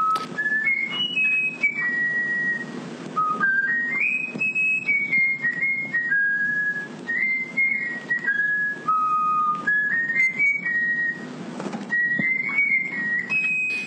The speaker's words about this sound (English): Yeah, whistling to the bullfinch. And you can hear the sort of breathiness between his phrases and the whistle. And then you hear the bullfinch do it. And the bullfinch just filtered all, all that rubbish out and just does it to perfection.